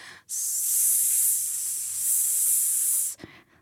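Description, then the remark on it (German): A voice imitates an airbrush spray can with one steady, breathy hiss lasting about three seconds, loud, then ending in a short exhale. “Das war der, der Airbrush.”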